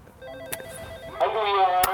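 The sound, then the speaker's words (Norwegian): A doorbell rings at the home of Bjarte Tjøstheim for a Sunday brunch, a steady two-part electronic chime: a softer tone first, then a brighter, louder ringing note that sustains to the end, with a couple of sharp clicks. “Skal vi ringe på, da?”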